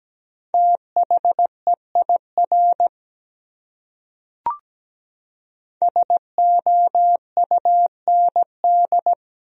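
Morse code sent at 17 words per minute as a clean, steady mid-pitched tone keyed into quick dots and dashes, spelling one of the 100 most common words, two bursts of characters separated by a pause with a soft click, no voices.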